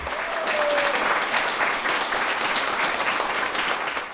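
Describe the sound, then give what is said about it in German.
Steady audience applause, a dense wash of many hands clapping at a sustained, fairly loud level for several seconds without any voices, for a film screening of 'Chaos im Königreich' in the parish hall of St. Martin in Ingolstadt-Meiling. “Applaus, Applaus für den schönsten Film der Welt.”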